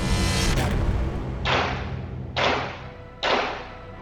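gunshots

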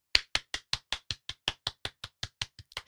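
hand clapping

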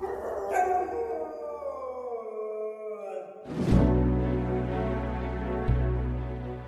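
dog howling

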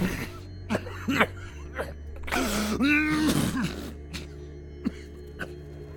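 cough and throat clearing

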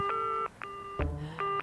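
telephone number being dialed

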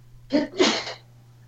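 sneeze

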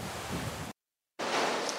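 rushing river water

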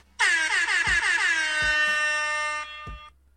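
air horn blast

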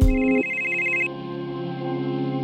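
telephone ringing

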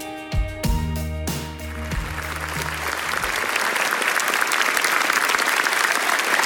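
studio audience applauding

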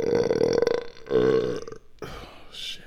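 loud burp

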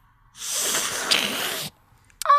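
loud nasal sniff

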